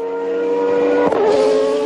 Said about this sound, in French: Dans la monoplace française apparaît le casque d'Éric Comas. Pendant deux jours, la JS37 avale les kilomètres et bat son propre record sur le petit circuit. Mais le pilote au volant est en fait Alain Prost.